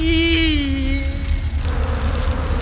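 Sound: swarm of locusts buzzing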